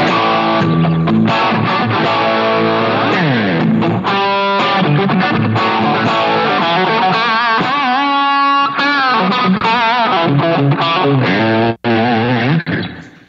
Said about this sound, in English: Um, then I have a Timmy set up if you want a little more of that straight Marshally crunch.